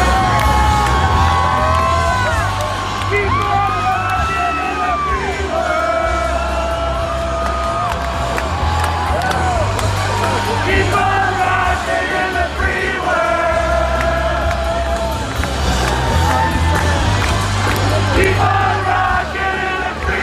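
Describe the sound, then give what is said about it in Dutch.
After the power cut out mid-set at a concert, the audience and band keep singing together loudly and unamplified, many voices carrying a melody in unison, with scattered shouts and whoops rising over the steady chorus for the whole stretch. “En op een gegeven moment ging de stekker eruit, maar dat weer hield publiek en band er niet van om door te blijven zingen.”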